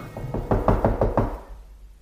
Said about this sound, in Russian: Гость остановился перед дверью, и крепко постучал.